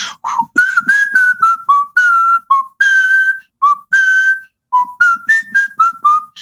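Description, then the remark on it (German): A clear whistled melody of an American Civil War song, short and held notes rising and falling in a lively march-like rhythm, heard alone without any talking. “Das, das singen immer die Nordstaatengruppen oder pfeifen in allen Western, während die, wenn Südstaatengruppen gezeigt werden, dann singen oder pfeifen sie immer.”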